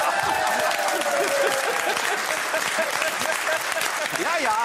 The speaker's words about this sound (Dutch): Over een applaus gesproken